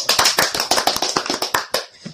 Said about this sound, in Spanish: Un aplauso para el concurso.